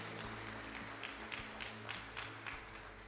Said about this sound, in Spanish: Damos fuertes ofrendas de palmas a nuestro Dios, hermanos. Gloria a Dios.